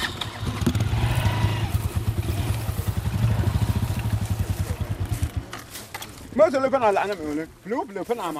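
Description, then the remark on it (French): A motorcycle engine drones with a low, pulsing throb for several seconds as it rides into the bush, then cuts off. Afterward, someone starts speaking. “Pour s'y rendre, il faut s'enfoncer dans la brousse, en moto, puis à pied.”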